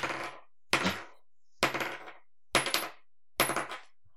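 Metal rings clink together in about five sharp, evenly spaced bursts, each with a bright brief ring. Fairly loud, with no voices.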